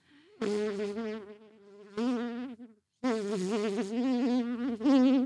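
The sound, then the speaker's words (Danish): A person imitates a buzzing fly with their voice, a loud, wavering drone in three bursts separated by short pauses, the pitch wobbling up and down like an insect darting about. “Fluen? The Fly.”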